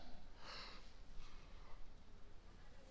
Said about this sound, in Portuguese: Um exemplo: se eu começar a bocejar aqui, Hã?